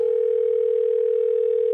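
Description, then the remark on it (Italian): A steady, continuous telephone dial tone hums at moderate loudness for the whole moment, unbroken and alone with no voices, heard on lifting a receiver before dialing an electrician. “Chiamo subito tre elettricisti per chiedere un parere. Prima telefonata all'elettricista.”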